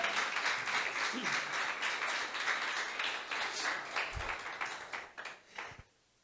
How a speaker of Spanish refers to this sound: un aplauso a Dios si usted está creyendo esta palabra.